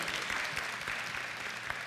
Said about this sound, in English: And that was, that was actually very pitiful applause, but you don't get a second chance, okay?